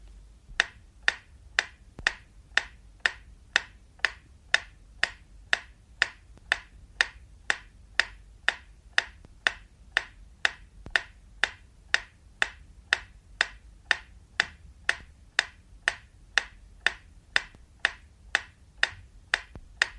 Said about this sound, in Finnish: Lopuksi vielä metronomin tikitystä kaiutinparin ajatellusta keskipisteestä. Tämän aikana voitte säätää vastaanottimessanne olevalla balanssi- eli tasapaino säätimellä tikityksen mahdollisimman tarkasti keskelle.